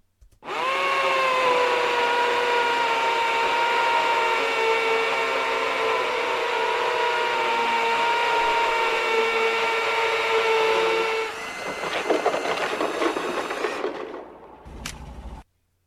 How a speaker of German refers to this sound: Wir lassen jetzt so nervig, das ist die Bohrmaschine nochmal laufen, um zu überprüfen, ob das mit dem Auswählen auch wirklich geklappt hat.